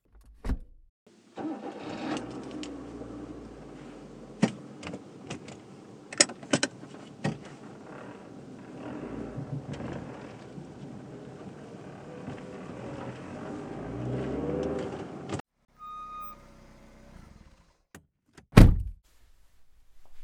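A car engine starts after a door thunk and runs with a steady, rumbling drone for about fourteen seconds, then falls quiet before another sharp thunk.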